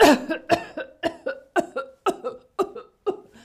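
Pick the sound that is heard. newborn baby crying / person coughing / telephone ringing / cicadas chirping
person coughing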